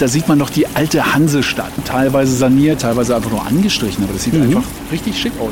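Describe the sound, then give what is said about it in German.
Water pours steadily from a pump into an overflowing bucket at a small historic fountain built on stones with a granite basin, a continuous splashing hiss running underneath people chatting throughout. “kleinen historischen Brunnen, gebaut auf Steinen mit einer Granitwanne und die wird gefüllt wiederum durch eine Pumpe”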